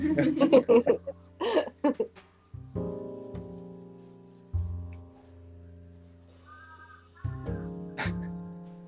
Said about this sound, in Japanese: カラスです。めっちゃカラスが出てます、こちら、湘南エリア。湘南です。